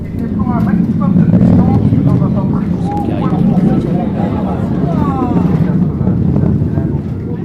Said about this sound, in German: Erst als der Himmel schon wieder stockdunkel ist, erreicht das Donnern des Triebwerks die Aussichtsterrasse am Kontrollzentrum des Europäischen Weltraumbahnhofs im südamerikanischen Kourou.